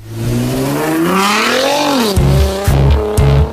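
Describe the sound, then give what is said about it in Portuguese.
A car engine revs hard, its pitch climbing and sweeping through a long high-RPM pull, then bouncing off the limiter in three rapid, loud bursts. Prominent, with no voices. “Alta rotação.”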